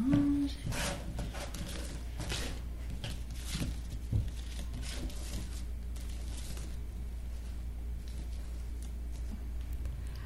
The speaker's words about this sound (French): fait que tu mélanges les cartes